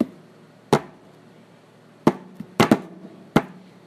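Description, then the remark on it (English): Five sharp, percussive taps tapped out as an island-sounding Afro-Cuban groove, unevenly spaced with a quick double hit near the end, over quiet background and no talking. “Yeah, it's it, but there's a thing where it's like, I'm gonna try to tap it like.”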